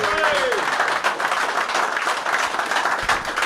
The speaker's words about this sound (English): Give him a nice round of applause, ladies and gentlemen.